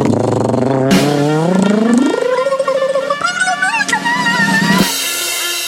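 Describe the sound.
A voice imitates a snare drum roll before revealing which story was the fake one, with a loud, continuous rolled trill whose pitch climbs steadily, then wavers and flutters before cutting off sharply near the end.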